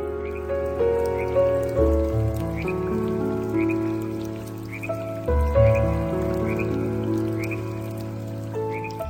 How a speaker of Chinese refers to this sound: 雨声潺潺，像住在溪边。